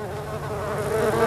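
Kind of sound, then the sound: insect, fly buzzing around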